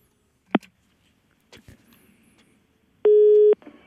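A click, then some faint handling noises, followed by a loud, steady electronic telephone tone lasting about half a second, heard alone with no voices.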